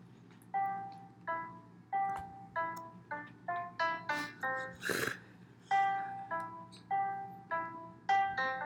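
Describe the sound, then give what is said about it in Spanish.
A simple melody played live on a cell phone's keyboard app, a string of bright electronic notes in a steady, slightly uneven rhythm, with a brief noisy burst from a technical glitch midway and a low background hum. “Están tocando en el teclado del celular”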